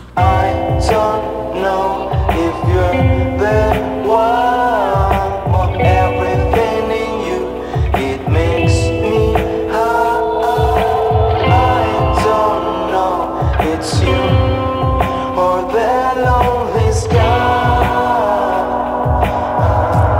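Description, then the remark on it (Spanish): A band's new single, a mellow, romantic-sounding song, plays loud and steady throughout, with a deep bass line, a soft regular beat and warm sustained melodic lines, and no talking over it. “Demasiado chill, demasiado tranquilo, viene muy astral y romántico a la vez para que puedan dedicarla”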